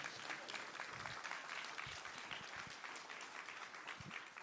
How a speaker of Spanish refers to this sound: Alguien está aquí conmigo. Ahora sí puede aplaudir. Now you can clap.